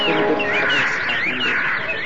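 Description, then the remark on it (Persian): A dense, continuous flurry of high chirps and tweets from birds around an old woman's head, several calls overlapping in quick rising sweeps, fairly loud, with no break across the short stretch. “ناگهان پرنده ها دور سر پیزن”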